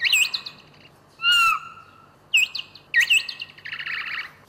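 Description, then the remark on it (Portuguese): Bat social calls used for communication when bats cross paths: bursts of high, twittering chirps and buzzy trills, with one sustained wavering tone in the middle, coming in several loud phrases with no voices. “tem uma espécie de melodia. É um som que eles usam para comunicar e é uma parte que está ainda pouco estudada, não é?”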